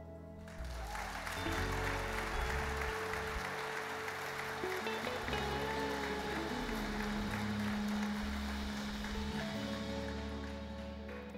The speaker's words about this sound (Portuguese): Pode aplaudir.